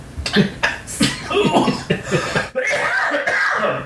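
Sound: coughing fit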